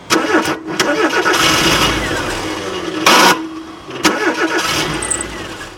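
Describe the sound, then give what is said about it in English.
A truck engine cranks repeatedly in several loud bursts, sputtering and grinding each time without ever catching and running, as the driver tries several times to start it. “she tries several times but the engine won't start.”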